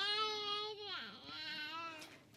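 A baby wails in a long, strained cry that dips in pitch midway and then rises again, steady, with no other voices present; the crying is background sound during a book reading.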